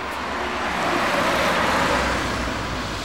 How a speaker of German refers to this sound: Der Straßenlärm ist in Städten das Umweltproblem Nummer eins.